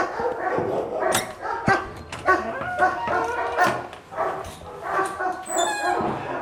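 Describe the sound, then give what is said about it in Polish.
A police service dog barks repeatedly and loudly, a steady run of sharp barks with a brief high-pitched whine near the end, at its kennel. “Jesteśmy właśnie przy końcach służbowych i pies służbowy Nero pokaże jak się pracuje”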